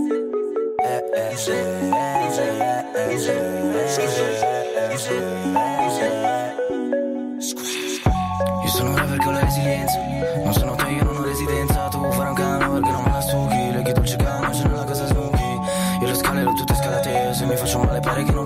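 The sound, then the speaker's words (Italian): An Italian rap freestyle track plays loudly, opening with a bright, plinking synth melody before a pounding hip-hop beat with heavy bass and drums drops in partway through and carries on steadily. “direi sentirci proprio un esempio che è …”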